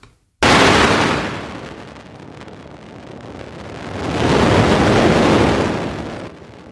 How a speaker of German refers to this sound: und zwar dessen Röntgenlicht-Echo und haben das Röntgenlicht-Echo transponiert über mehrere Möglichkeiten